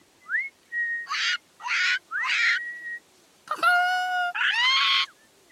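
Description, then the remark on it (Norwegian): A series of loud bird calls: short rising whistles and harsh rasping bursts, then a long piercing harmonic screech followed by another grating shriek, with no talking. “Dansen blir avbrutt. Er det lyden av kan, kan det være gullfuglen?”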